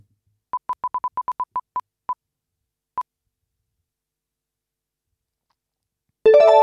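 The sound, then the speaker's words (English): A prize wheel, spun to choose the next rugby league team to pick a player from, spins down with a run of sharp, high ticks that start quick and steadily slow, trailing off to a last lone tick, then a bright, loud chime plays. “Let's take a look at who we're going to go for next and spin the wheel.”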